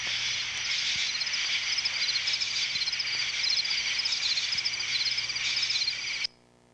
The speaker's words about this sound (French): Autre texture naturelle, un essaim d'insectes.